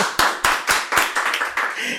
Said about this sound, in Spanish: Lo tenemos aquí. Un aplauso para Kate.